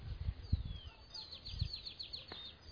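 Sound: birds chirping at dusk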